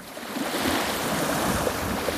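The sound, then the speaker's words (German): Steady rushing surf from sea waves breaking on a beach by a campsite in Italy, a continuous broad wash of water noise with slight swells, moderately loud, with no voices. “Nachdem sie den Wohnwagen auf den Campingplatz gestellt haben, geht Lisa erstmal ans Meer.”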